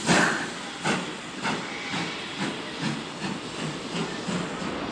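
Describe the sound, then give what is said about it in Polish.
A steam train hisses loudly with a steady rush of steam, punctuated by regular chuffing bursts roughly every half second as it pulls away. No voices are heard. “Były jeszcze chwile, gdy chciałam wyskoczyć z pędzącego pociągu, aby wrócić do ukochanego.”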